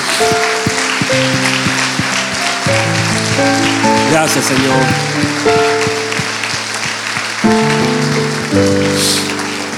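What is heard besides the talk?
audience applause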